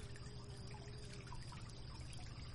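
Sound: river water flowing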